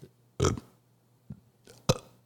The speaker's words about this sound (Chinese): 你知道这种什么声音吗？ 是是 打嗝的声音。